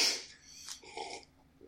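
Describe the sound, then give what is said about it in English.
A short burp from acidy coffee coming up: a breathy, raspy burst followed by a brief gurgling, voiced tail, heard on its own without any talking. “of uh, of burping while talking.”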